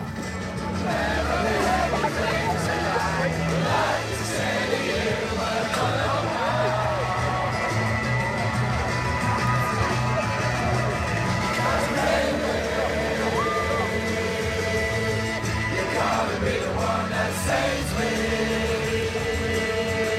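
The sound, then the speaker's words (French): A dense crowd's hubbub fills the whole stretch: many overlapping voices blur into a loud, steady murmur with no single speaker standing out. “ensemble, on se fraye un passage dans une foule compacte qui sent tellement bon le rock et l'aventure.”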